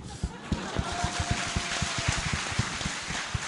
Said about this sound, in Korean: 제 말에 동의하시면 박수 한번 쳐주시죠.